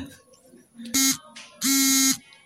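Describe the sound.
A wake-up alarm buzzes loudly at 4:45 before dawn, set for waking to dawn prayer, in two harsh bursts, a short one followed by a longer one, with faint voices murmuring underneath.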